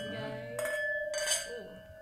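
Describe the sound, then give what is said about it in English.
Glasses clink together twice in a toast, each bright contact followed by a lingering ringing tone, with faint voices murmuring underneath. “Cheers, MVC. Cheers, cheers, cheers. Chin chin.”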